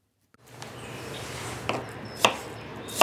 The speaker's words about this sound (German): Zwiebeln schneiden.